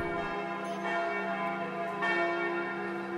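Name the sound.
church bells ringing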